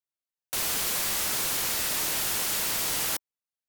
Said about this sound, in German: Komm, wir hören uns mal kurz gemeinsam an, wie ganz klassisches weißes Rauschen klingt. Ne? Das ist ja, weißes Rauschen ist so ein kontinuierlicher Klang, der alle hörbaren Frequenzen gleichmäßig abdeckt. Und das klingt so.